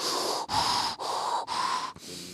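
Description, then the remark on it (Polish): A voice imitates heavy, rasping breathing through a mask, like Lord Vader in Star Wars: four slow, even breaths in and out with short pauses between, loud, with no talking. “Kiwnął mi głową, nie powiedział ani słowa, miał tą maskę taką, e, przez którą oddycha się jak Lord Vader e, w Gwiezdnych Wojnach, taki...”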